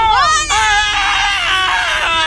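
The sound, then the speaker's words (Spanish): A voice imitates a wailing baby, a loud, sustained high-pitched cry with wavering pitch lasting a couple of seconds, with a brief catch partway through. “Sí, parecía que estuviera llamando a bebé.”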